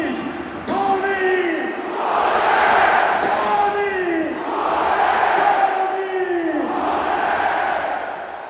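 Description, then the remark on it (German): A stadium crowd erupts in a goal celebration after a goal in the fifth minute of stoppage time on a Saturday evening, a loud, sustained roar that surges in repeated waves, with an excited voice shouting over the din. “hören wir uns doch mal die Jubelexplosion dann an, die in der fünften Minute der Nachspielzeit am Samstagabend passiert ist”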